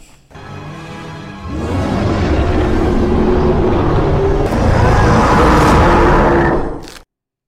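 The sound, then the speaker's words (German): A loud, continuous montage of rumbling, growling sounds from a film monster that has appeared in several films builds into its harsh, drawn-out scream near the end before cutting off abruptly. No one speaks. “Das war ein Zusammenschnitt. Am Ende war das schon der Schrei.”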